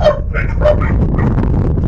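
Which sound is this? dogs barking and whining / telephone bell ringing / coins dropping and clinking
dogs barking and whining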